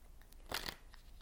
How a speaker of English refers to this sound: Oracle cards are a little sticky. I'm going to shuffle one more time.